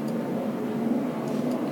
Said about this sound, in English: You know, sorry for the planes.